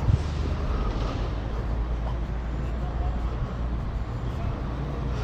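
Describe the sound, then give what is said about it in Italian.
Steady road traffic at a pedestrian crossing on a busy boulevard in Bologna, a continuous rumble of engines and passing vehicles that never lets up, heavy in the low end with a hiss of tyres over it. “Ecco, stavo attraversando strisce pedonali su un viale di Bologna. Ovviamente non si respira per i gas di scarico, speriamo che ci siano presto solo auto elettriche in giro, veramente non se ne può più”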